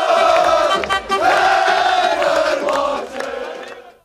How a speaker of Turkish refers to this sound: Birçok ilde maçın son düdüğüyle birlikte çok sayıda Fenerbahçe taraftarı sokağa döküldü, kutlamalar geç saatlere kadar sürdü.